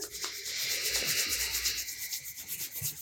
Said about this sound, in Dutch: En je kunt even je handen tegen elkaar wrijven.